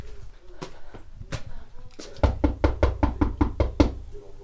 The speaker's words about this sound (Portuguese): Há ruelas entre as casas, é por elas que entro à procura de alguém. Bato a uma porta, Bato a outra e a mais outra.